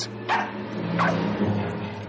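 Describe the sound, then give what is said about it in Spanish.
A female dog barks twice in quick succession, sharp, with a fainter yelp trailing after against a low steady background hum. “La perra ladra a”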